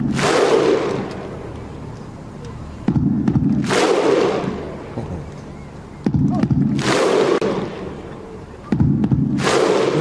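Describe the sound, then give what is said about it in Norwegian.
A huge stadium crowd of Iceland supporters at the European Championship claps in unison with a slow, steady rhythm, each sharp clap followed by a deep, booming collective shout, repeating about four times across a loud stadium. “Og vi husker jo Island under EM, hvordan de uh, klarte å bare liksom, ha ordnet med, med applaus og publikum.”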